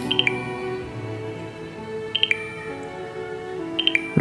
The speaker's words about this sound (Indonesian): Hari itu, grup WhatsApp yang dibuat oleh mantan alumni kampus sedang ramai-ramainya membahas soal keagamaan, mulai dari soal etis hingga masalah non-etis dalam keagamaan. Akibatnya, hampir setiap detik handphone tak sunyi dari suara notif.